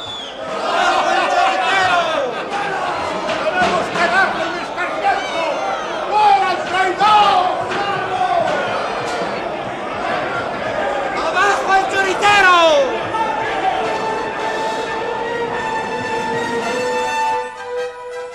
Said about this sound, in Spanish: Las risas y los insultos más soeces iban marcando el camino del derrotado príncipe de la paz, hasta que por fin entró en el cuartel la comitiva y el pueblo se quedó fuera gritando, pero impotente de poderse tomar la venganza por su mano.